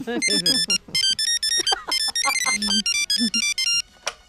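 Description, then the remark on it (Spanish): A telephone rings on the line, a loud electronic ringtone of rapid, high-pitched tonal bursts repeating in quick succession for several seconds, with a voice murmuring faintly underneath. “Voy a llamar al enemigo, como hacía Gila.”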